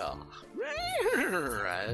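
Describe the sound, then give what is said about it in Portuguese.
A human voice imitates a horse's whinny, a loud wavering cry that rises and then shakes downward for about a second, with a low steady hum underneath. “Barulho de cavalo lá.”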